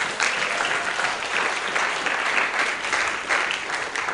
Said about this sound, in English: Clap for Jesus.